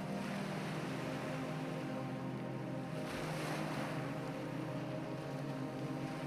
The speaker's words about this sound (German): Sie führt uns auf einen kleinen Felsvorsprung, nur wenige Meter über dem rauschenden Ozean.